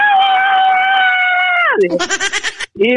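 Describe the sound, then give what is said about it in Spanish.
A voice imitates the scream of a man who slipped while grabbing a rock to climb and fell: a long, loud, high-pitched yell held steady, then sliding sharply downward, followed by a few short, choppy vocal bursts. “se resbaló y se vino de, para abajo, pues allá se, se desprendió de donde él estaba y solo se escuchó un grito de él ¡ah!”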